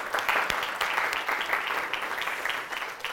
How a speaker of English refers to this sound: So why don't we give each other a round of applause for that? That's 5,000, it's incredible.